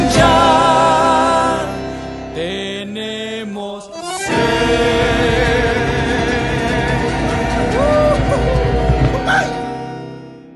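An Argentine gato folk song plays loud, with steady melodic lines over a full, rhythmic accompaniment; the music briefly thins out partway through before resuming with equal energy.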